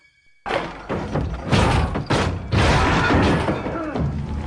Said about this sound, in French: La porte céda sous une pression vigoureuse et les matelots se précipitèrent dans la cabine.